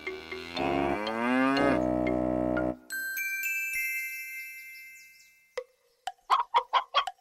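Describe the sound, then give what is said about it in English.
A loud, drawn-out cow moo sounds, followed by a few seconds of steady ringing tones and then a rapid string of short clucking bursts. No one speaks. “said the cow.”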